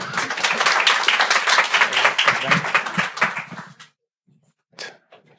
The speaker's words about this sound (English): Um, so let's give him a round of applause and get him up here.